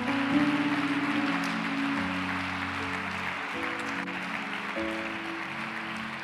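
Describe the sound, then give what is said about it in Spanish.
An audience claps steadily for several seconds as an offering of applause to God, a dense, even wash of applause layered over sustained keyboard or organ chords that shift pitch partway through. No one speaks. “Dele la mejor ofrenda de palmas que tenga para su Dios.”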